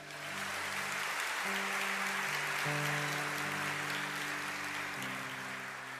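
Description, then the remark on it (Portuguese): Sustained applause from a large audience during a sermon, applauding God, steady and dense, over soft held keyboard chords that shift a few times underneath. “Eu declaro essa palavra, se você crê, aplauda aquele que é santo.”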